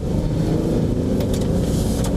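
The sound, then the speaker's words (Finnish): A car's small one-litre three-cylinder engine runs with a steady, loud, low rumble, holding a constant pitch throughout with brief higher hiss bursts, and no one speaking. “minä olen jotenkin ihastunut tähän autoon, yksilitraiseen moottorin erityisesti, joka ärjyy kuin isompikin jalopeura.”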